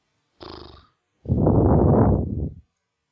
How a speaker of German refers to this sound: ich verstehe, ich, ich höre nur atmen.